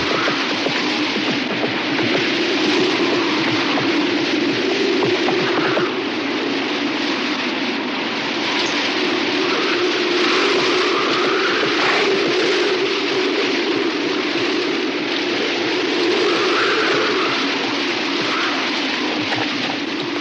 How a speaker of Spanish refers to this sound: y Sara salen cabalgando en medio de un fuerte vendaval por las áridas tierras cercanas a la casa. El viento es tan intenso que es difícil divisar nada.